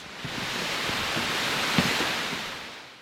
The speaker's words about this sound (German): Ein Wasserfall unterhalb eines Klosters, eines sehr berühmten Klosters.